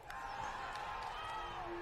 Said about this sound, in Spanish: acá en la Monumental de Tijuana a Escobedo que se despide del público, la gente de pie aplaudiéndole, por supuesto, porque el esfuerzo fue total.